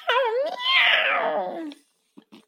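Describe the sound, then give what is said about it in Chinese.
A voice imitates the meow of Wilbur the cat as he runs down the stairs: one long, drawn-out cry lasting well over a second, its pitch wavering and then sliding downward, followed by a couple of faint soft sounds. “威尔伯跑下了楼梯，大叫着：“喵！”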